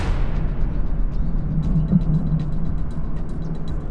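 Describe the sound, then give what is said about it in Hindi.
A car drives steadily along a forest road toward a village, its engine a continuous low rumble with road noise that stays even in loudness throughout, with a few faint clicks and rattles above and no voices. “राहुल उसी जंगल के रास्ते की ओर अपनी गाड़ी लेकर बढ़ गया जिस रास्ते से उसे आने के लिए मना किया गया था”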